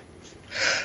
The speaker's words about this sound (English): Oh, sorry, I was yeah. sneezing.